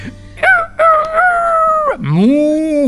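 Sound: rooster crowing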